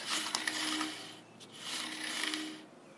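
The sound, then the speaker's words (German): A bicycle wheel that has stopped rolling freely scrapes and rasps as it turns, two long grinding passes with a faint steady hum beneath and a few small clicks, no voices. “Ja, mein Fahrrad hat aufgehört zu rollen.”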